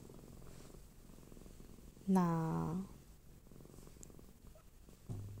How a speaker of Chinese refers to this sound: 我还是希望能够录到我们家猫咪的一个打呼声哦，它的这个我们说的沸水声、呼噜呼噜声呢。嗯，这个声音呢，真希望能够带给我们的听众朋友们啊，美好的猫的疗愈力啊！